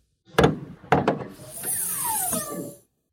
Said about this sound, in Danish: Ja, den lyd findes stadig på biler, ja så. fedt. Det er fedt. Men det er ikke så ofte, man åbner om til motorhjelmen øh, på, på moderne øh, maskiner.